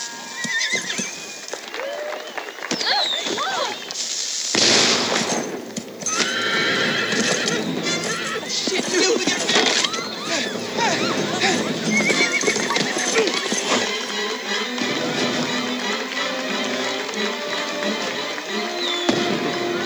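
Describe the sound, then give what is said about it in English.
A horse whinnies repeatedly while its hooves clip-clop steadily over a hard surface, fairly loud, with indistinct voices in the background. “stopping the horse? You're in danger, okay?”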